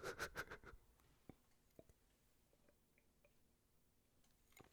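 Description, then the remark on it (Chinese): A quick, wet slurping sip of a drink at the start, a cluster of crackly sucking bursts, followed by a few faint scattered clicks and mouth sounds in near quiet. No one speaks. “我刚刚已经喝了一口，感到它里面那个浓醇香的一个味道啊。”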